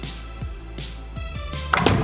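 door being closed

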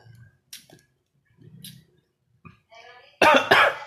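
coughing

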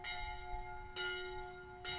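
church bell ringing

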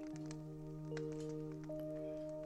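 crackling campfire

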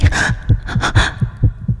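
fast heartbeat sound effect

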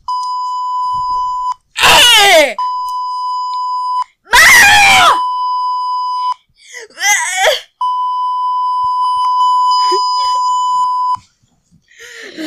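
person screaming loudly

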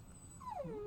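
dog whimpering in background

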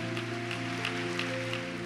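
audience applauding loudly

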